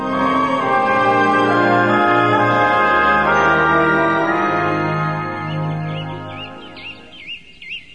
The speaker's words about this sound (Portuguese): Era segunda-feira. Eu tratava dos passarinhos em meu canto no jardim e continuava com meus pensamentos enquanto aguardava o senhor Luiz, que iria almoçar comigo.